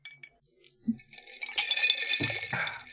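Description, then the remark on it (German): Ice cubes clink and rattle against the sides of a glass of cola mixed half with water, a few sharp taps followed by a busier stretch of jostling cubes with some liquid sloshing, with no one talking. “Cola, halb Wasser und Eiswürfel.”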